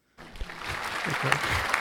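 A brief burst of applause starts abruptly after a moment of silence, a steady dense patter of clapping hands with some murmuring voices underneath.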